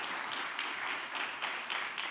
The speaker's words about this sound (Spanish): Dele un fuerte aplauso al rey. No se quede con las ganas.